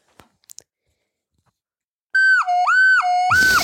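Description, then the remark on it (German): A shrill, breathy tone from the head joint of a soprano recorder, opened and closed by hand, slides down and back up in pitch two times, like a wailing siren, then cuts into a burst of rustling noise. A few soft clicks come before it. “jetzt eher wie eine Sirene angehört, weil ich habe die Sopranflöte.”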